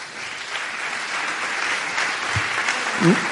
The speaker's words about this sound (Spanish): pues se merece también un aplauso.